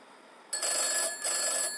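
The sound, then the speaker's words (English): A telephone bell rings in two bursts with a short gap between them, bright and fairly loud, over a quiet background with no talking. “Even so, I am not answering that thing again.”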